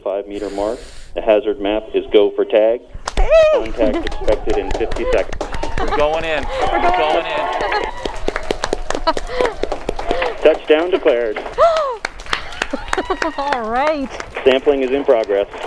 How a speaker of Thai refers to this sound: นี่คือภารกิจที่เกิดขึ้นของนาซานะครับมีบรรยากาศที่เกิดขึ้นในระหว่างภารกิจนี้ด้วยนะครับ เป็นเสียงดีใจของทีมงานที่ทำภารกิจในการเก็บตัวอย่างสำเร็จแล้วครับ